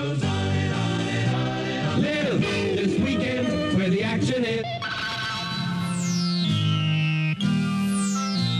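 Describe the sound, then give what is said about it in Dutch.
A short, loud Radio Veronica station jingle with sung voices over bright music, ending in swooping descending tones and a reverberant, echoing finish. “jingles voor speciale gebeurtenissen die zich niet alleen op het station afspelen.”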